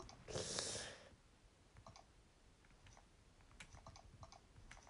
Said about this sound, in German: Oh, ich klicke immer auf falschen Knopf.